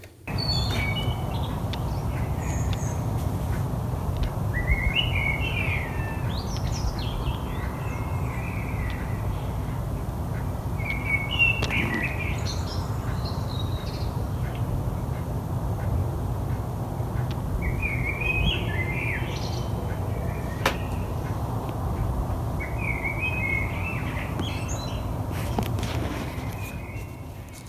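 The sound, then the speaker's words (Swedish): A bird sings a morning concert at 3:55 a.m. on March 29, with the temperature at 3.5 degrees above zero. It sings short, bright, warbling phrases again and again, with brief pauses between them, over a steady low rumbling background. No one speaks. “Det är CB Bom som, som undrar vem det är som håller morgonkonsert.”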